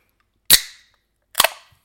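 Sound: soda can being opened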